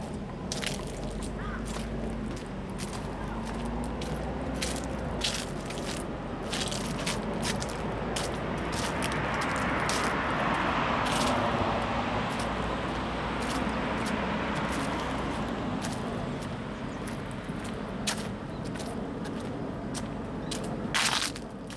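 Outdoor street ambience on a university student's walk to school: a steady low traffic rumble and wash of noise, with scattered crunchy, clicking steps and scrapes throughout, and no one talking.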